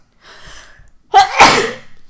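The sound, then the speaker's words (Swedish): A single loud sneeze, preceded by a soft, breathy inhale that builds up for about a second before the sharp burst. “Nu kommer jag nysa.”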